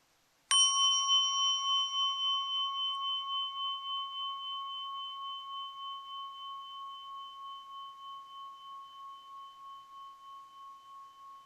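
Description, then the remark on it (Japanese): The second of two Buddhist altar bells (orin) is struck once, its bright metallic ring sustaining with a gentle beating shimmer and fading slowly over about ten seconds, clear with no talking. “それでは今からもう一つの方のおりも鳴らしていきたいと思います。”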